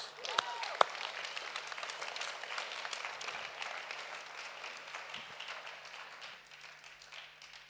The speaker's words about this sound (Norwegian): Gi dere sjøl en applaus.